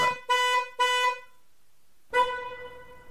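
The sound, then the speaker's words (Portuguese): A car alarm in a parking lot, set off by a bicycle leaning against the car, sounds with loud horn-like blasts: two short honks in quick succession, a brief pause, then a longer sustained blare that fades slightly. No one speaks. “A bicicleta estava mesmo encostada no seu carro que apitava.”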